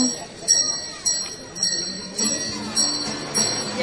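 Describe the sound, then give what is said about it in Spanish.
Procession bells of the campanilleros of the Esperanza de Huelva ring out as the procession leaves through the temple portico, in about six bright strikes at a steady, roughly half-second pace, each tone lingering and overlapping the next, with a low murmur of voices underneath. “escuchamos a los campanilleros de la esperanza de Huelva.”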